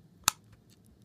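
A black mechanical alarm clock ticks: one sharp, loud click, then several much fainter ticks at a steady pace against a quiet background.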